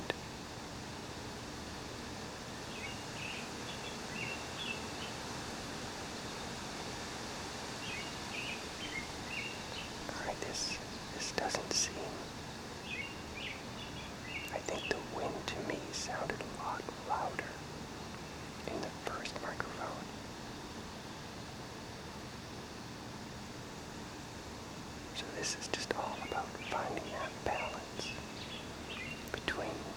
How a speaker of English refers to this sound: oh here comes some wind.